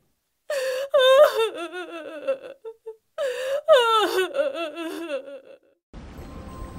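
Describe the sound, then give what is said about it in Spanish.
A mother cries in anguished, wailing sobs while on the phone, two long bursts of trembling, breaking cries with gasps between them, loud, before fading into a soft hiss. “Abrí los ojos después de escuchar un llanto desgarrador. Era... era mi madre.”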